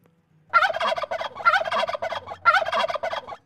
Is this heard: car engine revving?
no